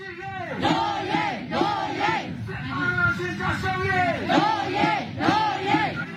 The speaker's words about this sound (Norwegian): Hva, hva er det der de roper for noe her? Norge, Og det betyr våre rettigheter. Altså det er en, en del av et kamprop. da. Hva vi vil ha. Vi vil ha våre rettigheter. Um, så doji. Det er det de roper.